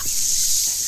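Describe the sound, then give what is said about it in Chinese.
A water gun sprays in one steady, hissing burst of water lasting under a second, bright and fairly loud, with no voices over it. “啊，对了，那肯定是你之前拿来喷我的那把水枪。”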